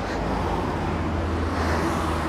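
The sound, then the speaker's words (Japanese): Steady roadway traffic noise from cars on a street, heard while walking at midday, a continuous low rumble with a broad hiss that holds fairly loud throughout, with no distinct single pass standing out. “喋ってますけど案外人混みも人混みはないけどちょっと車の音がうるさいのがちょっとネックかなちょっと聞いてみてまた考えてみたいと思います”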